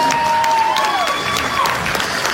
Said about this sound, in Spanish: Aplauso, aplauso.